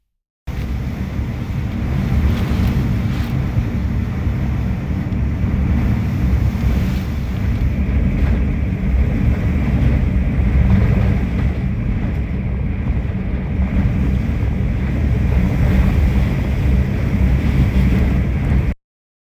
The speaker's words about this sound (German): Gut eine Stunde lang hat der Taifun Vollgas gegeben.